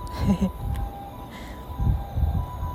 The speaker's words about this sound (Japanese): あ救急車ですかね救急車っぽいです 大丈夫かな